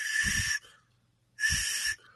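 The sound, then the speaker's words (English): Two short blasts on an emergency whistle from an emergency kit, each about half a second, separated by a brief pause. The tone is shrill and high but airy and breathy, with a hissing edge. “and they also have a whistle, uh, which I'll I'll I'll demonstrate that to everyone.”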